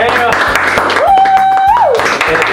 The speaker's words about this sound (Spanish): Un fuerte aplauso para todos